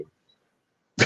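A sudden, loud, breathy burst, like a sneeze or a forceful nose blow, breaks the near silence right at the end, very brief.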